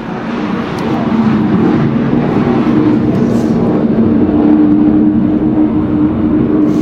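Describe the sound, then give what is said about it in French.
A loud, sustained roar of a Rafale fighter jet passing overhead at a nuclear-mission air base, a deep rumbling drone with a steady low hum that swells slightly and holds for several seconds, with no talking. “On ne pourra pas enlever les avions, hein, donc Rafale qui fait beaucoup de bruit.”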